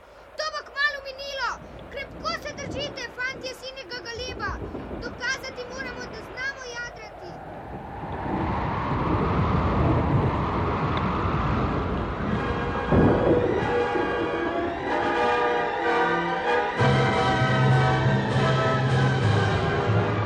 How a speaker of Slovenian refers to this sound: Vihar je zmerom bolj močan.